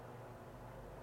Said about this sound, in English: And there's like three birds passing by me right now, three choppers. I don't know where they're going, but y'all can probably hear it in the background. Three big ass choppers going somewhere,